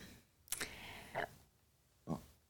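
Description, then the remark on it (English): A few short, guttural burps in a row, fairly quiet, each a brief throaty croak separated by pauses, with no talking. “Ooh, excuse me, I burped.”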